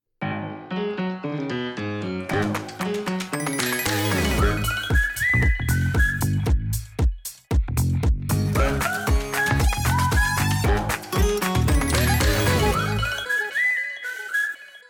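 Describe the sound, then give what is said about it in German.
Lively instrumental intro music with plucked, bouncy notes, and a bright whistled melody rising and gliding near the end as the track winds down. No one speaks. “Das, also gerade das Pfeifen hinten raus gefällt mir wirklich gut.”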